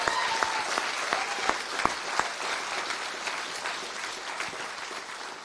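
An audience applauds for Jesus, a dense steady wash of many hands clapping with a few sharp louder claps standing out early on, continuing at an even level throughout with no talking.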